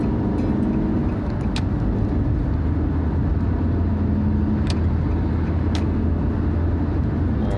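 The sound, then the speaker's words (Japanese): Steady, loud road noise from inside a moving car, with a constant low engine and tire rumble and brief whooshes of other vehicles passing by, in traffic with a concrete-carrying truck and a slow kei car. No one speaks. “せっかくねあの今ねこれなんていうのコンクリート運ぶ車がずっと譲り車線で避けてんのにねこれ軽音がめちゃめちゃ遅えのおめえお前も譲れみたいな”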